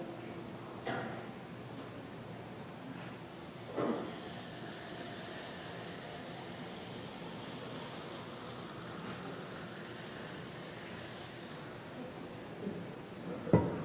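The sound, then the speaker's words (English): Liquid nitrogen poured into a cup during a demonstration, boiling very rapidly: a steady, fairly faint seething hiss runs throughout, broken by a few brief sharper bursts of crackle and splash. No one speaks. “So you can really see it boiling well here, um, very rapidly.”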